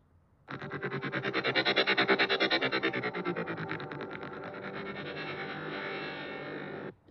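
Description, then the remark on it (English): A Transformers-style robot transformation effect: a loud, distorted mechanical buzz that throbs in rapid, steady pulses for about six and a half seconds, swelling early then holding, with no talking. “It, it's this Transformers type of uh, when they transform, they make this weird ass sound, and this is what it kind of sounded.”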